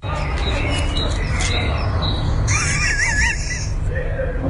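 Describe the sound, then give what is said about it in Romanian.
A blackbird sings a short, fluting warbled phrase midway through, partly buried under loud, steady outdoor noise and low rumble, recorded at the Russian embassy on Chiselef (Kiseleff) while a car burns and an attack is under way. “Mai dă o dată, te rog, de, de la început să se audă mierla.”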